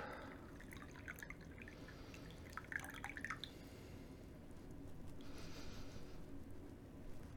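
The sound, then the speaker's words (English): Brewed shaded and unshaded sencha tea being poured at the same time for comparison: a quiet, steady trickle and splash of liquid running for several seconds, briefly easing midway before picking up again, with no voices. “we're gonna definitely compare these two and we're just gonna pour them at the same time and have a look.”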